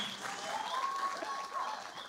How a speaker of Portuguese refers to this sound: Vamos dar salve de palmas para essa galera aí que fizeram.